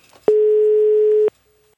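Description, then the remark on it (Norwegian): A single steady telephone ringing tone of an outgoing call from Norway to a seller about a 1980s Yamaha keyboard synth, sounding for about a second, loud and clear with a slightly buzzy edge, then cutting off abruptly into near silence. “At vi fikk en sånn fiks idé om at det er morsomt å ringe inn til Blokket eller finn.no og prute oppover.”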